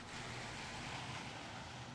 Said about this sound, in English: Outside Walker's that night, it was raining again.